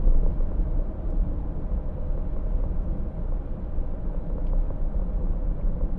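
Steady low-frequency rumble inside a car driving on a three-lane road, recorded with an AUDIX M1250BS microphone, a continuous road and engine drone that stays fairly even throughout with no voices.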